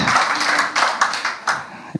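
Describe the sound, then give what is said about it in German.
A crowd applauds in a dense, steady wash of overlapping claps, with a few sharper individual claps standing out now and then; no one speaks over it. “Warum klatscht ihr jetzt?”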